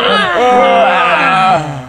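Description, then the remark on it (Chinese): A single long, loud voiced yawn in a classroom, drawn out for nearly two seconds with a wavering pitch that rises and then sinks as it trails off. “一时间，教室里的哈欠声此起彼伏”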